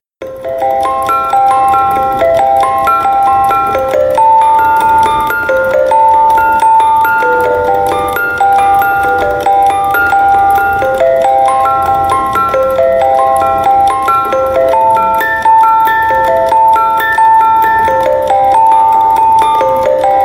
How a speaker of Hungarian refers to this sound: Mit is érne az élet egy okos telefonnal vezérelt mechanikus zenedoboz nélkül, ugye? Egy kis demo.